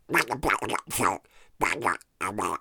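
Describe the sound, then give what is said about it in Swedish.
A voice imitates a crackly baby monitor speaker, making several short, garbled, buzzy bursts of mock speech separated by brief pauses, fairly loud. “Det är liksom sprakar och hejvilt och som liksom röst typ.”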